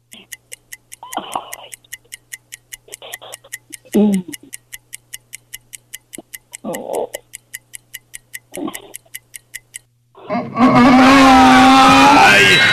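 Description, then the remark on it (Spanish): A fast, steady clock ticking counts down ten seconds for a contestant to answer a quiz question while a few short bursts of speech break in, then the ticking stops and a loud, harsh blast of noise takes over as time runs out. “Solamente 10 segundos. Venga, vámonos.”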